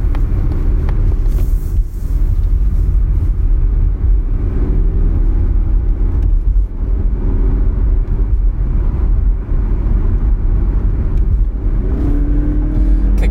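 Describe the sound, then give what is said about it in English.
Steady, loud engine drone from inside a 250-horsepower turbocharged Mazda compact SUV as it accelerates up an interstate on-ramp, low rumble with rising harmonic tones and road noise, no one speaking. “But let's see how this 250 horsepower Mazda feels on an on ramp.”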